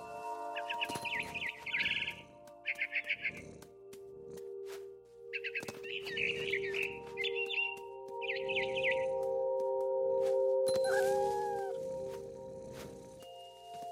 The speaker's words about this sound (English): I tried to be quiet, but the bird was really scared.